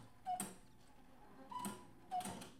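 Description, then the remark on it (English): A cuckoo clock chimes with soft, whistle-like cuckoo notes and mechanical clicks, repeating a few times at an uneven pace, moderately loud with no one talking. “I'm sorry about my cuckoo clock just then.”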